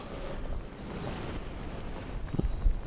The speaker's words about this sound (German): Niederschlag 0,3, Windrichtung W mit 34 bis 54 und Regen und Windböen. Weil ja, haben wir auch.